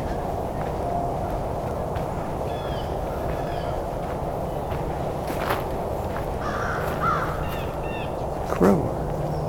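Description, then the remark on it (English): A steady traffic hum from Highway 401 fills the background without a break, while scattered bird chirps and a few crow caws sound faintly over it. “background you can hear the hum of the 401 highway”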